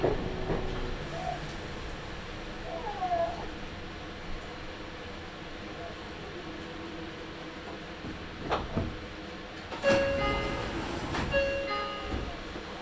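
A Nagoya Railroad (Meitetsu) Toyokawa Line limited express train, running from Toyokawa-inari to Kō, runs along the rails with a steady rumbling roar, sharp rail clanks near the end, and thin high-pitched whines and squeals rising over the noise. No one speaks.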